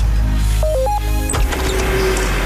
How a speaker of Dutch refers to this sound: Het iets piepende, zingende geluid op de achtergrond is het geluid van kleine karretjes met achter elk karretje bloemen in alle soorten en maten en kleuren. Ik sta midden op de handelsvloer van de Royal Flora Holland Veiling in Aalsmeer.